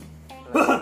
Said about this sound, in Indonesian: Eta batuk.